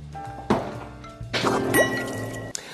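A drink splashes briefly into a second glass, poured for a guest, then pours steadily for about a second with a rising gurgle as it fills, over a faint steady background tone; no one speaks.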